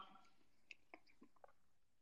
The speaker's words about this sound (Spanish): anda a terminar de masticar después y nos contás.